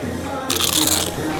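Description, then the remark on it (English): A crisp, crackling crunch of biting into a first nacho chip topped with cheese, sour cream and beans, lasting about half a second, loud, over a low murmur of voices in the background. “You know that sound anywhere. It's the crisp crunch of that first nacho chip.”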